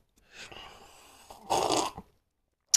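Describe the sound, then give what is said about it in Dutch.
Someone sips tea: a soft, drawn-in airy slurp swells into a louder slurp, followed by a brief pause and a sharp little click at the end. “ik neem even een slokje van mijn uh, namaste.”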